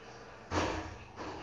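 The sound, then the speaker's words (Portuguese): A single sudden, fairly loud thud with a deep low boom as a door slams shut, breaking through a quiet background hiss and fading out over about half a second. “E a porta bateu.”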